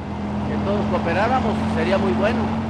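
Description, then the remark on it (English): The engine of a 1978 Volkswagen Bug idles with a steady, low droning hum while waiting to go through a vehicle emissions test, as people talk over it. “… is waiting to take his car through the test.”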